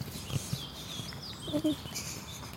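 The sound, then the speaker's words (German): Thin, high bird chirps and twittering drift through a quiet outdoor forest ambience, with a few soft low thuds and rustles. “Wir sind gerade im Wald. Hier ist schönes Vogelgezwitscher.”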